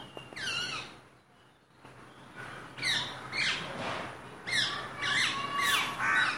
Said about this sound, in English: best matches, rose ringed parakeet